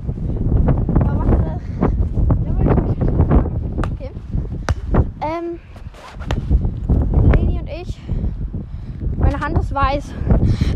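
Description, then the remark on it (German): Loud, blustery wind buffets the microphone throughout, a constant low rumble and crackle, while people talk and call out over it in short bursts. “Sorry für Windgeräusche.”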